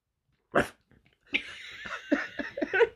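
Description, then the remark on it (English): A person imitates the snarling, rabid dog from the film Cujo: one sharp bark, a short pause, then a rapid run of rough, growly barks and huffs, loud. “Where my dog's at? Ruff, ruff, ruff.”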